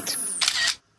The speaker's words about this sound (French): Vous entendez ce bruit C'est le téléphone de Jérôme qui se prend en selfie